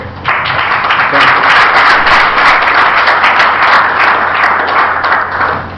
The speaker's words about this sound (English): So I please to thank them with an applause.